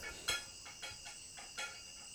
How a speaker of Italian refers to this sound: Questo che sentite è la mia gatta che sta mangiando, quindi si sente il rumore dei croccantini nel piatto di metallo.